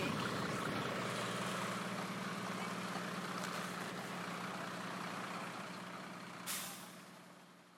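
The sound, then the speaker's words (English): A vehicle rumbles over a cattle grid in Scarinish on Tiree on a cold, very windy late evening, making a steady rattling drone and ending in a brief hiss as the sound fades. “Oh, there's someone going over a cattle grate.”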